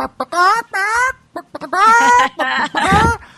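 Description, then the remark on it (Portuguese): A loud voice imitates a chicken clucking, a quick run of squawky, pitch-bending bursts, some short and choppy, others drawn out, with brief gaps between them. “E se você não se comunica com a galinha, com o bicho, ah. você não vai hipnotizar.”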